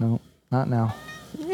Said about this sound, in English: Oh, that's my cat Sophia. Yeah, hey Sophia. But um, anyways, also I, if, if if we're lucky, we might get a meow.